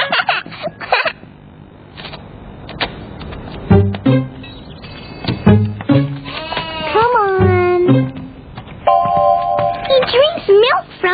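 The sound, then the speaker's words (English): A lamb bleats several times in short, wavering cries, fairly loud, with brief pauses between calls and some soft background rustling. “We call a baby sheep a lamb.”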